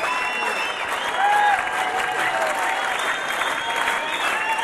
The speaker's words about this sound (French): Le public les réclame, vous entendez.